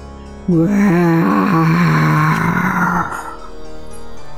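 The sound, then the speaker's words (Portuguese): A voice growls out a long, loud imitation of fierce bears roaring, a rough sustained moan lasting about two and a half seconds, then trails off into quieter background. “Subiram a montanha, sempre velozes, escutando os urros de ursos ferozes.”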